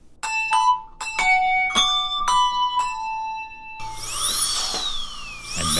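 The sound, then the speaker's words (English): A series of bright chime strikes rings out, then a high-pitched dental drill whirs in, its whine rising and falling in pitch over a steady buzzing hum. No one speaks. “Now, a news update from the dental chair.”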